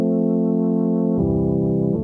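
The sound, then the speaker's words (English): A Yamaha DX7 synthesizer, dry with no processing, holds a bright, steady chord, then shifts about halfway through to a fuller chord with added low bass notes, loud with no reverb and no voices. “I've got a lot of Yamaha DX7 on this album.”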